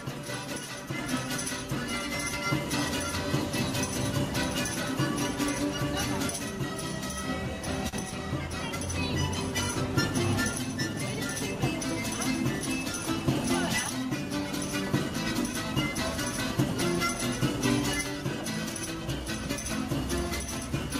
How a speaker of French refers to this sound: Et le prochain, c'est un mec dans la rue, euh, qui est assez talentueux, je trouve. C'est un homme orchestre.